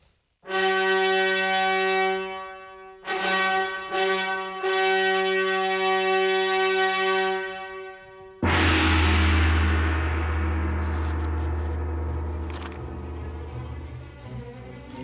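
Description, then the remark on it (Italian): Choir and string orchestra: the choir holds long, homophonic chords while the bowed strings move incessantly, broken by brief pauses, then surge into a loud, full passage with a deep bass underneath that slowly fades. “Sentite gli gli strumenti ad arco come si muovono incessantemente.”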